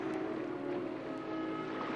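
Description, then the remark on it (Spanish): A steady, continuous wash of ocean water with a low rumbling undertone, fairly loud and even throughout, with no distinct breaking swells and no voices. “¿Oyes el canto de las olas?”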